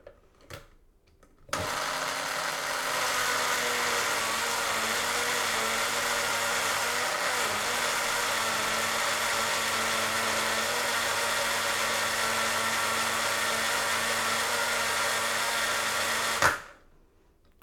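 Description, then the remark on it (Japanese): A blender mixes a shiso genovese sauce of shiso with olive oil, salt and pepper, whirring steadily for about fifteen seconds, a loud, even motor hum with a dense buzzing tone that starts abruptly and cuts off sharply, with no one speaking over it. “今ちなみにオリーブオイルと塩コショウを入れましたではちょっと音大きいかな回しますだんだんだんだん混ざっていってます”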